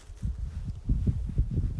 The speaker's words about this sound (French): Là, par exemple, je suis... Euh, tu, peux entendre le vent en train de, de, me balader